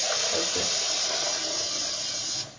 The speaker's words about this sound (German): Ähm, ich, ich muss jetzt das Wasser ausdrehen.